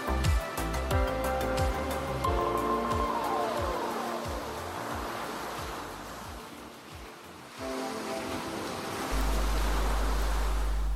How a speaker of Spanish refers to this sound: como golpean las olas.